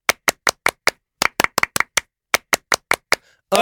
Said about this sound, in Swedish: Och det tycker jag att vi ska fira med ett stycke fransk applåd. Vad säger du om det? Till oss själva för en gångs skull. Då gör vi det. Un, deux, trois!